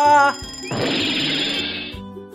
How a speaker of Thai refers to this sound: เสียงนาฬิกาถูกคว้างลงบนพื้นอีกตามเคย นาฬิกาอุลตร้าแมน จุกจนต้องเงียบเสียงลงในที่สุด